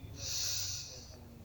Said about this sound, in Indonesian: nah ibu udah narik nafas duluan nih tarik nafas melalui hidung selama dua detik rasakan udara bergerak mengisi perut